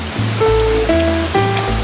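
Heavy, steady torrential downpour roars continuously with a dense hiss, while soft sustained musical tones rise and shift through the background.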